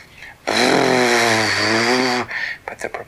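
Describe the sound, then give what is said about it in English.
A voice imitates the droning engines and propeller of a blimp with a loud, buzzing, steady hum that wavers slightly in pitch for nearly two seconds, then cuts off into quieter breathy sounds. “and then they could just begin to hear the faint sound of and they knew that it was the sound of the engines on the pirate blimp, and it was getting closer.”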